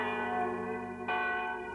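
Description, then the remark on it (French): Church bells ring in full peal in Rome, marking the city's capture by the Piedmontese army in 1870, their overlapping tones humming and sustaining, with a fresh clang striking partway through. The ringing is steady and resonant, with no voices. “À toute volée, les cloches sonnent à toute folie.”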